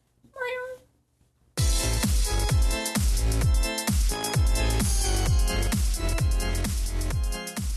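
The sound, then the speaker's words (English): A single high-pitched kitten meow rings out clearly on its own, then loud, rhythmic music with a steady beat abruptly starts and continues to the end. “And as always, we are filmed in front of a live studio audience of kittens.”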